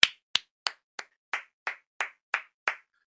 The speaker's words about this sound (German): So, und ähm, als Abschluss der Offseason, weil, Leute, und jetzt könnt ihr euch alle freuen, alle klatschen jetzt gemeinsam in die Hände, das ist die letzte Woche ohne NFL Football. So, alle jetzt.